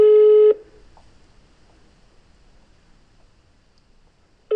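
A telephone tone for a number not in use: a loud, steady, buzzy beep lasting about half a second, then several seconds of near silence before the same tone starts again.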